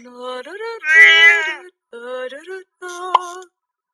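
A cat meows three times, drawn-out, tonal cries with rising and wavering pitch; the middle meow is the loudest and strained, and there is no talking.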